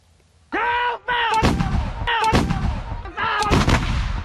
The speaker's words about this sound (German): Noch landen die Geschosse im menschenleeren Meer. Beim jährlichen Herbstmanöver demonstriert Taiwan Entschlossenheit.